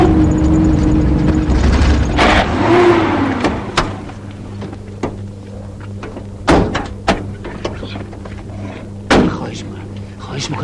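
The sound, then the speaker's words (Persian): A car engine rumbles loudly and rises in pitch as it revs and accelerates, then settles into a steady idle hum broken by several sharp thumps and bangs. “تو دیگه کی هستی برادر ترمز بریدی که بریدی”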